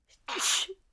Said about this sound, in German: Die sehen aus wie normale Quallen, aber sie hüpfen alle paar Sekunden aus dem Wasser und niesen.